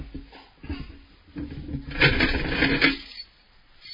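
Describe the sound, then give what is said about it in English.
Keys jingle on a keyring, a few light metallic shakes followed by a louder, sustained rattle of clinking metal, then quiet. “on my set of keys here, there's some keys that I use all the time, and there's other keys that I almost forget what they are until I really need it.”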